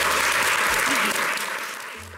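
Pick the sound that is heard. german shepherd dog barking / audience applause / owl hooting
audience applause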